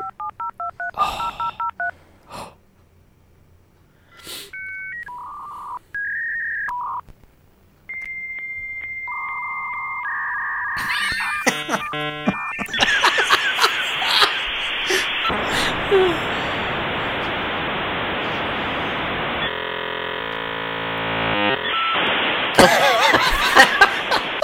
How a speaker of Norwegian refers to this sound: Du måtte bruke det til dial-up-modem. Har du dial-up-lyden der? Ja, det, vet du. Har de gode gamle modemene.